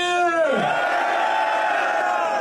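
At a rap battle event, a loud shouted voice slides downward in pitch, then the crowd roars and cheers for a battle rapper in a dense, steady wall of noise that holds at full volume to the end.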